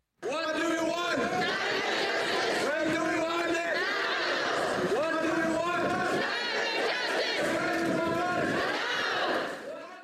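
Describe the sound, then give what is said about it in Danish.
A large crowd of protesters at a climate march in Aarhus in 2019 chants the slogan "Climate Justice" in unison, its rhythmic phrases rising and falling in steady cycles, loud, with background chatter mixed through the throng. “Ja, Climate Justice, det her, det var fra klimastrækken i Aarhus i 2019”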